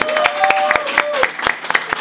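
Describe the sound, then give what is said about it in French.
A room of people applauds steadily, a dense patter of claps with sharper individual slaps, and a whistle and a few cheering voices rising over it. “On l'applaudit tout le monde.”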